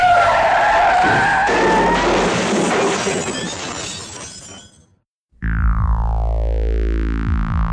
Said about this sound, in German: Mit überhöhter Geschwindigkeit rast ein Fahrzeug auf sie zu.